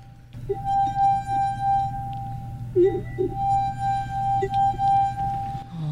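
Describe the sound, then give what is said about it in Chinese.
A water-wetted finger circles the rim of a drinking glass marked with musical notes, drawing out a steady, high, pure singing tone that swells and wavers for several seconds, with a few faint squeaks of the finger catching and slipping. “因为在玻璃杯嘛，它会滑，然后就手指可能会滑出去，然后还有本身它有摩擦力，所以太大力它也会滑出去。”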